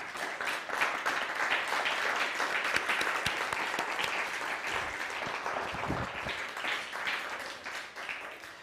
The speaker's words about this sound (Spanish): Bueno, pues ahora sí, un fuerte aplauso. Vamos, vamos.